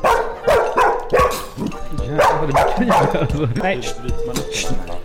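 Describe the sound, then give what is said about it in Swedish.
A dog named Dogge barks repeatedly, loud sharp barks coming in an uneven series of about six or seven across a few seconds, with some whiny, yelping tones mixed in. “Ja, Dogge voffade ju, ja, fan, voffade på alltså.”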